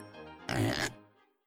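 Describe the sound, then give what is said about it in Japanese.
A voice imitates a pig, as the piggy answering in a story read aloud, with a single loud nasal oink that swells into a rough, snorting grunt, then trails off into a low murmur. “豚さんが答えました。いいよ、ブヒ”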